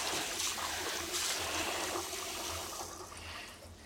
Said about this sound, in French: Donc là, le but, c'est de faire couler de l'eau dessus les arêtes et que les arêtes deviennent toutes blanches.